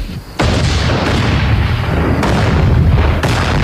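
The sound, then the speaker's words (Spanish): A loud explosion bursts in suddenly and rolls into a deep, sustained rumble, with two more heavy blasts hitting in the later seconds. No one speaks. The explosions are Homer's homemade liquor exploding, in The Simpsons. “por ejemplo, eh, cuando se provocaban las explosiones, si lo podemos recordar, ninja.”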